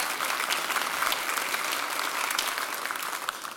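A room full of people at a church applauds steadily for a couple going over to France with another family, a dense, even patter of many hands clapping at once, sustained at full strength without pause for a few seconds.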